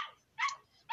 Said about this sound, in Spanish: Eh, disculpen el ruido de mis perritos, ¿eh? es que es la hora de, su ataque, pero bueno.